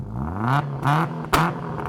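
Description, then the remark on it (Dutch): A race car engine revs hard in repeated surges, its pitch climbing and dropping between bursts, ending with a sharp roaring rush as it speeds off. No one speaks. “Deze week is het thema auto's. En niet zomaar auto's, maar supersnelle auto's.”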